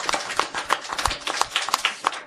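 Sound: audience applause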